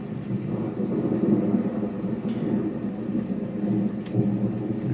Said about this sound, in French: Sentir l'eau sur son corps entendre le tonnerre au-dessus de sa tête.